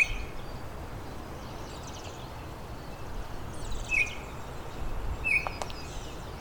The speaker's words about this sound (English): I'm hearing Blackburnian warbler. It's a bit far off though, in northern Parula